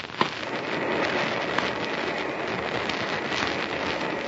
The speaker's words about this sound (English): Now, I turn off the gas. And then I turn this nozzle. And a fine spray of water is shot into the cylinder, mixing with the gas.